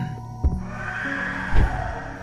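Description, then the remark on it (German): A drawn-out, harmonic creature screech rings out with a whinnying, shrieking quality, with a couple of deep low thuds: a whole flock of flying dinosaurs crying out as they fly overhead, a dark green one circling among them. “Als du lautes Geschrei über euch hörst, blickst du nach oben.”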